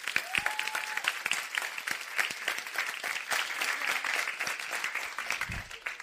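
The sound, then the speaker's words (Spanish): A full audience applauds steadily, giving applause to God, a dense wash of many hands clapping at a fairly even loudness for several seconds, with a brief tonal whistle-like note early on. “Eh, wow, ¿por qué no le das un aplauso a Dios?”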